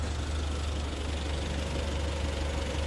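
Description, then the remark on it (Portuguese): A steady, low rumble of car engines moving slowly along a city street in south London, where cars may not go faster than 20 miles per hour, droning continuously at moderate volume with no distinct pass-by swells and no voices. “Aqui todos os carros passam devagar.”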